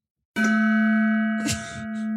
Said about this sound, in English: You won't remember anything when the sound of the gong happens. None of this happened.